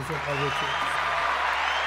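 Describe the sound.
Audience applause fills the whole moment as a steady, dense clatter of clapping, with a voice talking briefly over it at the start.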